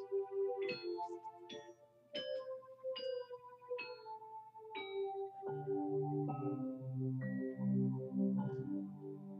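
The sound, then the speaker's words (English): Deep-toned bells ring out softly on a midnight wind, a string of separate strikes at first, then overlapping into a humming, continuous peal. The sound is quiet and distant, with no voices. “heard that faint, far ringing of deep toned bells on the black midnight wind.”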